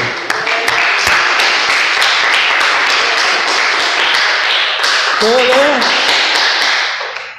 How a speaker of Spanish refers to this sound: Dile el aplauso.